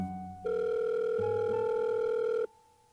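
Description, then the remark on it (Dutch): A single steady electronic ringback tone of an outgoing call to a phone number found on the internet for commentator Davide Cassani sounds for about two seconds, a loud, even buzz-like hum over a faint background of low tones, then cuts off abruptly. “Op het internet vinden we een telefoonnummer. En in al ons enthousiasme bellen we er meteen naar.”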